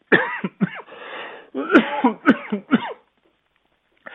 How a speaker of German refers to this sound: Die Zeit ist so spannend, dass ich sogar husten muss.